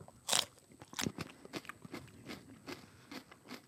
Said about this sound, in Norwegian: Eh, men denne tror jeg er grei, for dette er vanlig chili. Eh, så denne tar vi et godt jafsa.